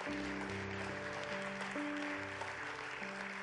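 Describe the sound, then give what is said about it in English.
A church audience claps steadily for a church team in a dense, continuous wash of applause, with sustained organ or keyboard chords playing underneath throughout. “So if we could give them a hand clap, and if I can ask you,”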